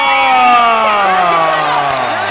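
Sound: audience applause and cheering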